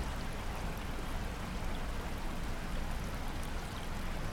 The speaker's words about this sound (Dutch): En je hoort het ruisen van het water bij de sluis.